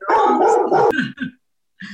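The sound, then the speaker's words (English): Dogs bark in a loud burst of overlapping barks and yips, then two shorter barks, a brief pause, and one final bark near the end. “Oh, they come, they come in the dogs. We've got an audience.”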